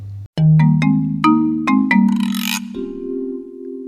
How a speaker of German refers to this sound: Wenn es morgens um drei klingelt, gibt es immer schlechte Nachrichten. Alex Ryder wachte beim ersten Klingelton auf.